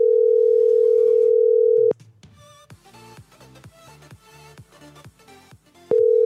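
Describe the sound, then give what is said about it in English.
A steady telephone dial tone hums loudly as a call is placed to law enforcement, breaks off into a short stretch of clicking, tonal beeps and line noise, then the dial tone returns at the end. No one speaks. “He's calling. Oh, he's calling law enforcement about this.”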